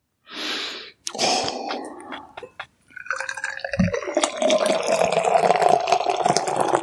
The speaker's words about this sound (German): Und deshalb sage ich jetzt mal, ich öffne diese Dose, ja. schenke sie in mein IPA-Glas und werde dieses wunderbare Bier mit euch jetzt mal verkosten.